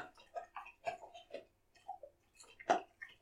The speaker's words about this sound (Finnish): Tämä maiskutus on koiran purulu ja kohta se on syönyt ja me saadaan, saadaan keskustelua. Varmaan kuulostaa hauskaa se, mikä toi ääni on.